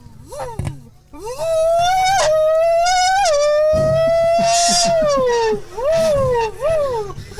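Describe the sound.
A voice imitates a Formula 1 race car engine: a loud, high-pitched whine held for several seconds, with sudden pitch jumps like gear shifts, then dropping off in falling revving swoops.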